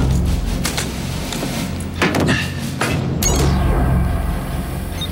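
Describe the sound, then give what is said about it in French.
A door with no name or number on it is opened over a low steady hum, with a few sharp clicks and clunks of the latch and handle, then a brief creaking swing near the end. Nobody speaks. “Je crois que c'est cette porte, mais il n'y a pas de nom ni de numéro. Voyons ça.”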